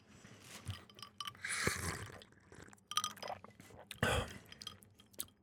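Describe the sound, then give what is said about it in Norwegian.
Glasses of lemonade clink together in a toast, a couple of bright chiming knocks, followed by soft sipping, swallowing and small mouth sounds as the lemonade is tasted. “…, der har du limonaden din. Yes! Kan man lage den deiligste limonade av de sureste sitroner? Som et symbol på livet sjøl. Skål.”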